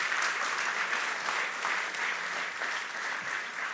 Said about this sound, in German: Mal Applaus für die Familie.